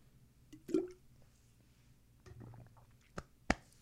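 A few quiet wet sounds, like water being gulped or splashing, followed by two sharp drip-like clicks near the end, with no talking.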